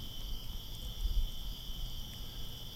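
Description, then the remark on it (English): A steady, continuous high-pitched trill of crickets at night holds evenly throughout, with the low, soft roar of a wood fire underneath and no voices. “I'm sure you can hear the crickets yes, the fire, the crickets.”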